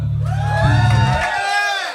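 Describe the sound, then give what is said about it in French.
The live audience at a concert by the band a band erupts in loud cheering and applause in answer to being asked how they are doing, with whoops and shouted voices layered over steady clapping that holds strong for about two seconds. “Par applaudissement, comment ça va?”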